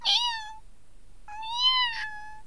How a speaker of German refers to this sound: Und dann hat er immer so miaut, ne? Der kann nicht richtig miauen, der macht immer mhm. nur so. Mhm.